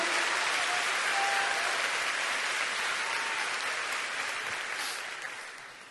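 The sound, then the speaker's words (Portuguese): A church audience applauds God during an evening service, a steady, dense wash of clapping that holds strong for several seconds, then gradually fades toward the end. No one speaks over it. “Aplauda mais forte o nosso Deus, porque Ele muda a nossa vida.”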